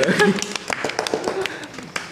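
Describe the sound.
A small group claps in quick, uneven bursts, sharp overlapping slaps, with voices murmuring underneath throughout.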